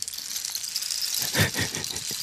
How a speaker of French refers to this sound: ah, je sens qu'il va pleuvoir. Ah non, merde, c'est mon bâton de pluie.